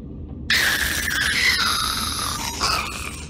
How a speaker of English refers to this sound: Wow, sounds crazy. It sure does. But the ghast's high pitched whine is actually a recording of a Minecraft music producer's cat waking up suddenly from a nap.